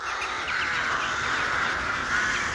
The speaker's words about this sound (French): Face à la menace, toute la colonie s'envole d'un coup. C'est le chahut général, des choucas et des pilles s'ajoutent à la cacophonie.